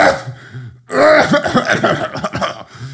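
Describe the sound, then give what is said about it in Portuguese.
A voice imitates the frail, wheezy coughing of old people: a low groan, then a loud burst of rough, sputtering coughs and throat-clearing that trails off into strained, raspy hacking. “Estão, estão tipo meio de braço ao peito, tipo a tossirem, tipo.”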